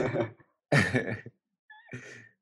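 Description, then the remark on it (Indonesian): A recorded breathing track: three heavy, breathy exhalations come in quick succession with short silent gaps between them, fairly loud, like sighing breaths with no talking. “Trek nafas apaan?”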